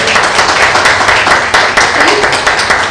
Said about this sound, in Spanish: a quien le pido un aplauso por favor.